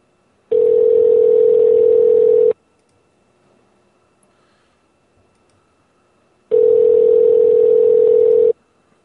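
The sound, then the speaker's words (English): A telephone tone on a group call line as a group call is added: a steady, mid-pitched electronic hum sounds for about two seconds, falls silent for several seconds, then repeats once. No one speaks. “Add the group call.”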